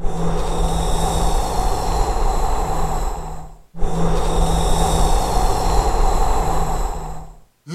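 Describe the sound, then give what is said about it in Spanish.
A wolf blowing hard at a sturdy brick house, unable to move a single brick: two long, loud, breathy gusts of roughly equal length, each nearly four seconds, separated by a brief gap, with a low hum running underneath and no talking. “El temible lobo llegó y por más que sopló,”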